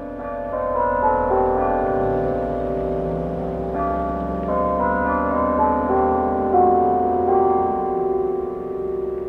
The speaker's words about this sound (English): This week's Sound of Meeker, the St. James Church Bell.